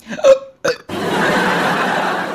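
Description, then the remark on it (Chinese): Two quick, voiced hiccups from someone coming out of a restroom, the first louder with a brief squeaky pitch, are followed by a steady, loud rushing hiss that fills the rest of the moment. “小编，你出卫生间，你打嗝，你是几个意思？”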